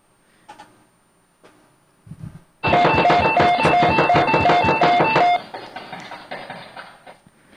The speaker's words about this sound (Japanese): まあ、なんだこれ タイトルがピンポンダッシュ目覚ましって なんで目覚ましにピンポンダッシュの要素持ってきたっていういろいろツッコミどころはあるんですけど